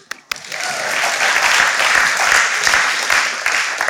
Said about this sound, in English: You can clap for them.